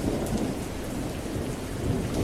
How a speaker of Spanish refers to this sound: Era un viernes por la noche con una lluvia fuerte que golpeaba con prepotencia las viejas chapas que mostraban goteras en varios lugares.